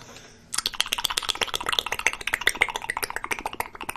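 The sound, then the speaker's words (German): A burst of a person's face and lip flapping, a rapid, wet blubbering flutter of soft pops that starts suddenly and keeps going steadily, fairly loud, with no talking over it. “… hat gerade mit dem Gesicht geschlabbert”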